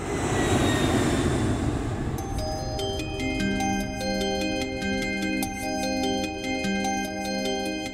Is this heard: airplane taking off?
yes